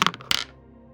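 A die clatters across a hard surface: a few quick, sharp clicks, then a louder rattling tumble that settles into quiet. Close and fairly loud, with no talking.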